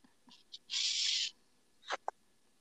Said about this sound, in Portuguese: O quê? Este barulho de. O quê? Tipo ah, eu tô bebendo. Tô bebendo água de cu. Ah, por isso tá fazendo esse, esse barulho.